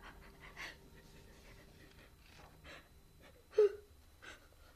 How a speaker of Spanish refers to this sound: cálmate, cálmate, no llores.